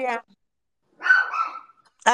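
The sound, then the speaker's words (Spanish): A single dog bark, a sharp harsh yelp with a short whiny tail, lands between bits of conversation, with voices heard just before and after it; the speaker's dog is fighting with something. “Ya que mi perro está ahí peleando con la,”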